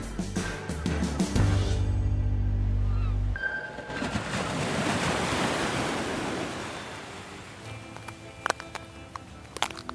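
Shells crunch underfoot in a few sharp steps during a walk along the tide line on a beach, after heavy wind buffeting and over a steady wash of surf in the background.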